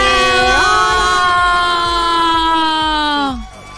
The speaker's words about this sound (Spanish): Eh, hagamos, que eh, saturamos oídos con nuestros gritos. ¿Los no, tuyos nada más o es que la audiencia también se vio saturada?